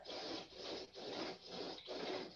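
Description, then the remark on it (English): Window blinds being drawn closed, a steady series of four or five scraping, rasping pulls in a regular rhythm, with no one talking. “Can you can you close your blinds?”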